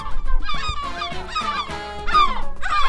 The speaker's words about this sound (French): Si la mouette te répond c'est dans la poche, c'est ta copine, tu peux la ramener chez toi et lui présenter tes parents, ta petite sœur et le facteur.